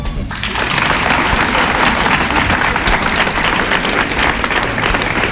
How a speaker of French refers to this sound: C'est ici et c'est en autogestion et euh, ça mérite un applaudissement.